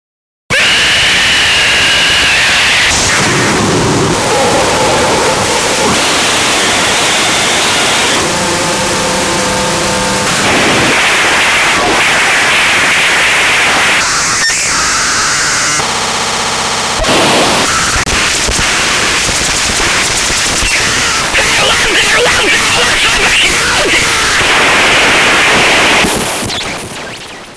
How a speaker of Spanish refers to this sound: su voz, fuertemente distorsionada, genera una masa de ruido avasalladora. El volumen es atronador.